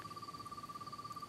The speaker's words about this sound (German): Hörst du die Grillen? Die haben Beat.